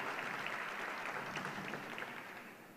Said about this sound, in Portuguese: Aplauda ele e aplauda Jesus pela vida dele.